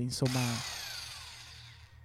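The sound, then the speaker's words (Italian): A brief spoken word gives way to a voice imitating the motor of a Tesla electric pickup: a loud, hissy whirring whine that slowly glides downward and fades over about two seconds. “Stavo imitando il suono della Tesla.”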